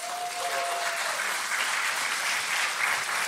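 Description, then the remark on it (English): A large crowd claps steadily in a dense, sustained wash of applause that fills the whole stretch, with no voices standing out above it, giving the Lord a round of applause. “So, would you give the Lord a round of applause?”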